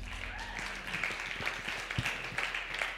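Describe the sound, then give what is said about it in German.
An audience applauds a band steadily throughout, a dense wash of many hands clapping at once, moderately loud, with no voices standing out. “Herzlichen Applaus der Band.”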